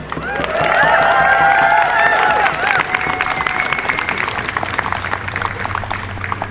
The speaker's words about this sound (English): Your continued presence is commendable. May our voices extend beyond the borders of these lands and reach our friends in Gaza. So please give yourselves a big warm round of applause.